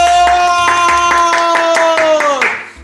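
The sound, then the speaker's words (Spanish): Applause opening the 200th programme of Dramarama: steady rhythmic clapping, around nine sharp claps, rings out over a loud sustained bright tone, and everything fades away in the final half second. “¡Aplausos!”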